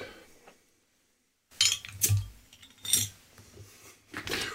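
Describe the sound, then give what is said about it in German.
Glassware clinks and clatters, several bright knocks spread over a few seconds after a short silence, as glasses and bottles are handled to pour a drink. No one speaks. “und direkt wieder was zu trinken geholt, damit man dann wieder aufs Klo rennen muss.”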